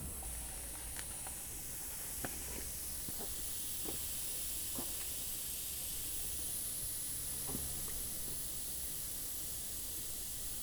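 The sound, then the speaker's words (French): Air hisses steadily out of a deflating tyre, a loud, bright, continuous rush lasting the whole time, with a few faint ticks and clicks scattered through it and no voices. “vous pouvez profiter de ce magnifique son, euh, cela à 440 Hz”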